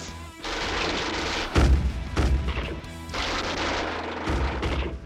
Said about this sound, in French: Plusieurs nouvelles explosions résonnèrent, cette fois lointaines, provenant des corridors derrière les pirates.